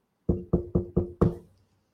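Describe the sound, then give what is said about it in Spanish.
Five firm knocks on a wooden door in quick, even succession, fairly loud, with the last knock slightly heavier and ringing out briefly before silence. “Entonces el cerdito más pequeño se mete temblando a su casita de paja y de repente escucha que a la puerta”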